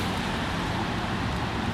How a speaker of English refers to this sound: of course, now all you can hear is traffic